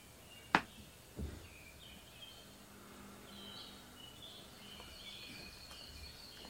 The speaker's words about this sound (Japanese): 鳥のさえずりをお楽しみください